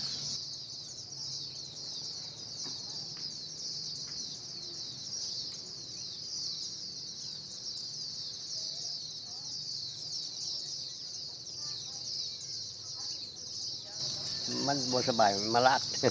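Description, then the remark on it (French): Outdoor ambience by bamboo: a steady, high insect drone fills the background while faint birds, heard there almost all day, chirp and call intermittently, with a rooster-like call or voice rising briefly near the end. “Et d'ailleurs, on entend le, bruit des, oiseaux tous les, quasiment toute la journée.”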